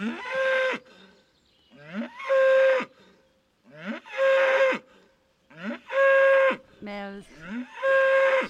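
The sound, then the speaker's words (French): A bull bellows loudly, letting out a series of deep, drawn-out calls about a second long each, with short pauses between them and no one talking. “Et des fois, le taureau, lui, il n'aime pas les personnes qui tiennent un micro.”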